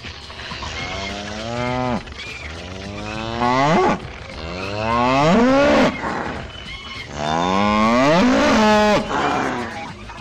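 Cattle mooing: three or four long, loud, drawn-out moos follow one another with short gaps, each rising and falling in pitch, and nobody speaking.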